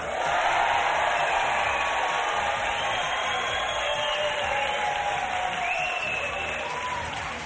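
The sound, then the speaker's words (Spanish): A large live crowd at a live broadcast in Madrid in cold weather cheers, shouts and claps continuously, a loud and dense roar of voices and applause that holds steady throughout, with a few individual whoops rising above the din. “ya lo ves, cómo conviene la gente, eh, desatada este 2023.”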